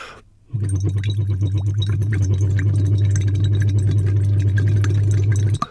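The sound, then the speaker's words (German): A sustained 'oo' voiced gently, not blown, into a hose dipped in a little water, making the water bubble and rattle steadily for about five seconds, fairly loud, with a constant low drone under the rapid gurgling. “und der Schlauch guckt so ein bisschen ins Wasser rein und dann, ähm, ich will nicht sagen pustet, also nicht mit Kraft, aber dann spricht man ein U in diesen Schlauch rein und bringt das Wasser zum Blubbern.”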